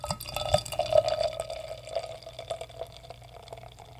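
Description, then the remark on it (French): Wine pours into a glass in a steady, bubbling stream with a clear ringing tone, loudest early on and gradually tapering off over about four seconds, with no one talking. “Bon, je vais la verser.”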